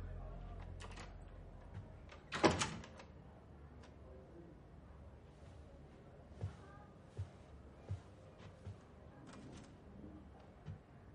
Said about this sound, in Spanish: el camarero le trae una botella y un vaso. Cierra la puerta.